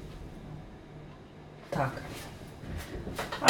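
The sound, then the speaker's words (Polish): Beetroot concentrate is poured from an unscrewed bottle into a pot, with a few sloshing bursts and a sharper clunk near the end over a low background hum. “Odkręcamy po prostu butelkę i przelewamy jej zawartość do garnka.”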